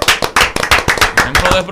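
A short burst of hand clapping, quick irregular claps from a few people, fairly loud and close, lasting under two seconds.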